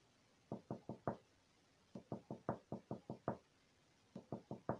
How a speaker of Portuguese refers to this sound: Olhou-se no espelho, segurou firme o batom e, quando estava aproximando-a da boca, ouviu uma batidinha na janela, bem de leve, dessas que não assusta ninguém.